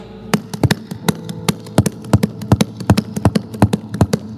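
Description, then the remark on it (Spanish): Quick, rhythmic hoofbeats of approaching horses clop in an uneven gallop pattern, about twenty sharp thuds over a few seconds at a steady loudness, with no voices. “Entonces quiero que te imagines que está ahí Eliseo en sus propios asuntos y de repente escuchas los caballos venir.”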